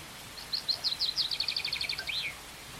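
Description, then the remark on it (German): A common chaffinch sings one loud, clear song phrase: a rapid series of bright notes that speeds up and descends, ending in a flourish, with no voices present. “Der Buchfinkengesang ist also eine sehr kräftige, schlagende Stimme.”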